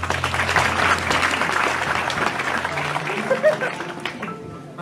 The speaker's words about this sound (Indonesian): Sekarang tepuk tangan untuk terakhir